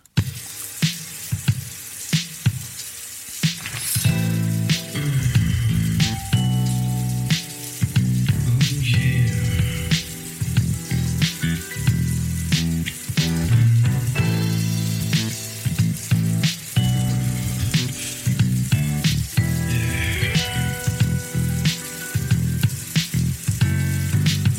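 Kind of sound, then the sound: sound effect, shower water running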